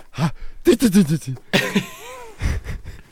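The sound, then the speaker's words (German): Someone vocally imitates a sneeze that sputters on like a lawn sprinkler, a rapid string of breathy hisses and voiced squeaks with short gaps between bursts. “wie so ein Wassersprenkler.”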